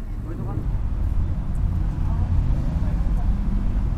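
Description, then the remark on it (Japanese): The engine of a Fukuoka open-top tour bus in Tenjin, Japan rumbles steadily, a deep continuous drone with wind buffeting and no pauses, as the bus pulls away. “ただいまよりオープントップバス出発してまいります。”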